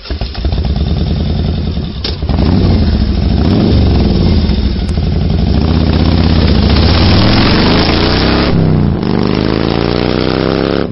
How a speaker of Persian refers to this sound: اما تو تهران وجود میلیونی موتورسیکلت ها باعث شده به شهر موتورسیکلت ها تبدیل بشه